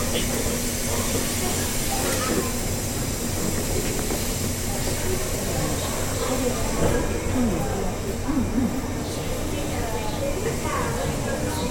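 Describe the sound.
A JR West 201 series electric commuter train on the Yamatoji Line (Kyuhoji to JR Namba) sits at a station platform, its steady mechanical hum and airy hiss filling the space, with muffled voices faintly audible beneath the constant drone.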